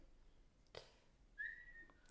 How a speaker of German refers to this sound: Oh, sie, sie pfeift